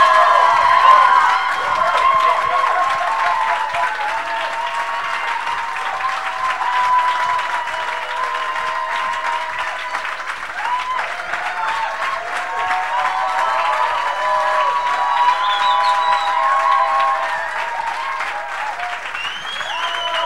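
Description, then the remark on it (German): A large crowd at an evening gathering breaks into sustained, loud applause for Jesus lasting about twenty seconds, dense clapping mixed with cheers and whoops, with no one speaking over it. “Und warum geben wir nicht Jesus, dem König der Könige, mal einen riesigen Applaus hier heute Abend?”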